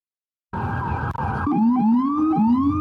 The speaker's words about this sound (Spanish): Con las sirenas encendidas, así llegó el subcomisionado de la policía a Times Square